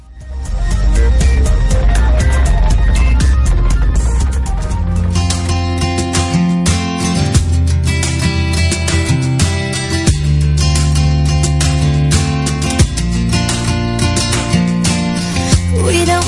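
A song's instrumental intro plays loud and full, with sustained tonal chords, a steady rhythmic pulse and strong bass throughout, and no voices.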